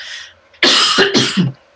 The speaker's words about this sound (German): Entschuldigung, ich kann mal husten.